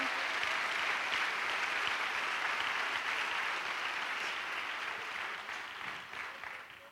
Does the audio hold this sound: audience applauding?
yes